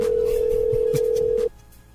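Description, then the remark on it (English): A single steady ringback tone from an outgoing phone call hums for about a second and a half, then cuts off, leaving faint low background noise. “I'm about to try to get uh, my man Black Ross on the phone”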